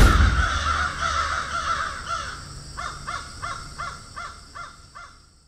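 Crows cawing with harsh, repeated calls: a ragged cluster at first, then a steady, evenly spaced run of about seven caws that fades slightly toward the end. No one speaks.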